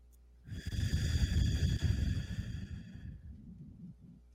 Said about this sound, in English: I want you to do the, the breathing in through the nose and out through the mouth visualizing it going in and out through your chest, and just try to have that renewing emotion. Okay, so here we go. In through the nose and out through the mouth.